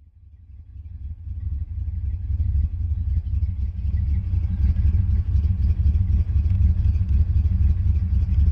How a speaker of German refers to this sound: Trotzdem gibt es manche Autos, bei denen finde ich, dass sie cool aussehen und vor allen Dingen großartig klingen. Und der Klang, den wir da im Ohr haben, der wird ziemlich oft von alten Chevrolet-Motoren erzeugt.